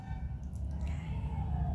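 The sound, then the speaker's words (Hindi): A police siren wails outside, its tone sliding upward, over a steady low rumble of traffic or background noise. No one speaks. “आप तो देखते ही होंगे कि ये पुलिस की सायरन सताती है उसी समय आ जाती है बस ये दर्शाती है कि अभी आपका कब समय हो गया”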